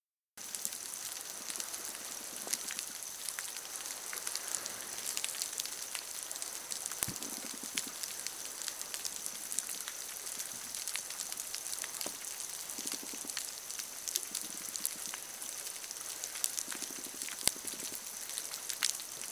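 An ocean soundscape of dense, steady crackling and popping, countless tiny clicks layered into a continuous fizzing hiss with occasional sharper snaps, and no voices.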